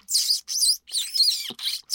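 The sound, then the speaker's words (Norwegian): A person imitates mouse squeaks by drawing air in between the teeth, producing a quick series of high, hissy chirps in short bursts with brief gaps, fairly loud, no talking. “Men, men hvordan, vil lage, hvordan, vil du lage, en muselyd i dag uten hjelp av eh, lokkemidler? Du, da kan du trekke inn luft mellom tenna.”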